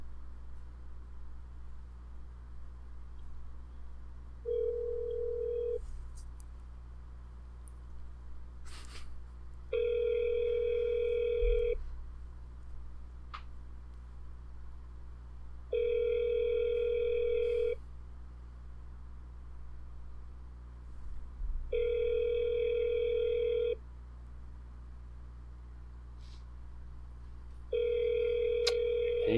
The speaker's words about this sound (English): they can't pick up the phone